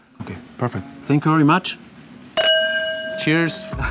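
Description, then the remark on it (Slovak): Wine glasses clink together once in a toast to Slovak wines, a bright sharp tap that rings on with a clear sustained tone, while people speak just before and after it. “Na zdravie slovenským vínam.”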